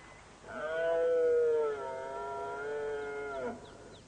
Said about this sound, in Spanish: El primer ciervo ruge desafiando a través del valle. Este prefiere ignorarle, pero a pesar de esto, el bramido continúa.